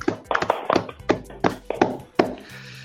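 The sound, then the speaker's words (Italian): A short burst of applause: roughly seven sharp hand claps in a slow, steady rhythm, fairly loud and crisp, with no talking over them. “quindi io direi di fare un applauso al nostro pubblico, che ne dite ragazzi?”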